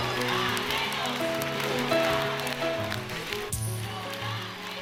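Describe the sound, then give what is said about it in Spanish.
An audience applauds the campaign for legal, safe and free abortion steadily for about five seconds, a dense, even wash of many hands clapping with some crowd voices and cheers mixed in, fairly loud throughout. “La campaña, un aplauso.”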